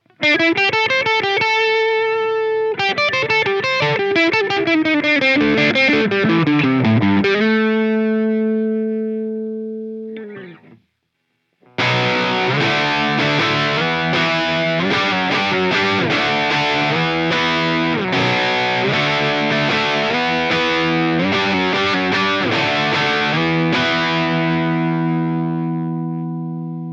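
Overdriven electric guitar through a China-made Orange Rockverb amp: a fast descending run into sustained notes, a short pause, then loud, gritty chugging riffs and ringing chords, with no voices.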